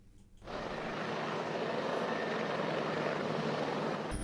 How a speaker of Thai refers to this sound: เฮลิคอปเตอร์สองลำของตำรวจตระเวนชายแดน ขึ้นบินตรวจสอบพื้นที่หลายรอบเพื่อเน้นการค้นหาเป็นวงกว้าง